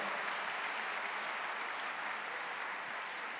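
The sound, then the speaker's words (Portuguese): A large crowd claps steadily and continuously, applauding the Lord, a dense wash of applause at an even volume, with no individual voices standing out. “Quem se sente perdoado aqui, aplauda ao Senhor, de toda a tua vida, de todo o teu coração.”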